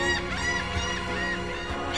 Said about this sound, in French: Les oiseaux marins rient dans le ciel d'azur, à moins qu'ils ne poussent quelques cris d'alarme.